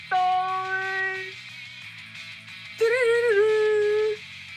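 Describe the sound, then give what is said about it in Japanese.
A coyote howl sound effect: a coyote howls twice, first a steady, drawn-out cry, then after a pause a louder, wavering one, both over a soft, rhythmic low thrum, with no talking. “コヨーテしか出てこなかった”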